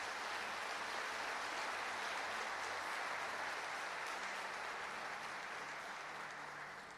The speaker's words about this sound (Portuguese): Dê um forte aplauso a Jesus por essa palavra.